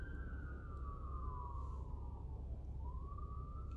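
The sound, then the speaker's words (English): A fire engine siren wails past as firefighters pull up, driving on without waiting for a green light; its tone slides steadily down and then climbs again over a constant low rumble of engine and street traffic, with no voices. “We've got firefighters pulling up.”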